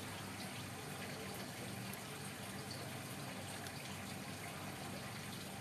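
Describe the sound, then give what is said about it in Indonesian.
A steady, continuous pour of bottled tea (Teh Botol) into a container, a soft gushing stream that runs unbroken for several seconds at a fairly low, even level. “dikasih apa tuh lo lagi Eh itu teh botol teh, botol samtek udah pahit”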